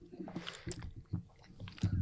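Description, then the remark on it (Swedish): Close, crunchy chewing of coffee pastry right at the microphone, with irregular moist bites and crumbly crackles over about two seconds, no talking. “Ja, det var ju ett ämne vi hade uppe jag uppe tuggar i. mitt i micken nu.”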